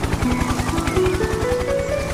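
Steady, rapid rotor thumping from a helicopter, loud, with a rising engine whine layered over the chop and no voices.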